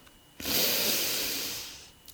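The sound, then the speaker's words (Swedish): A single deep inhale, an airy, hissing breath lasting about a second and a half that swells quickly and then slowly tapers off, with no talking. “Och då kom jag, mina ord som jag alltid använder och som jag brukar tänka på ibland, det är att jag andas in nåd.”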